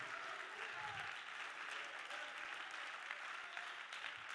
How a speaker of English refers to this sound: Praise God. Come on, let's clap our hands and thank the Lord for a few moments right here.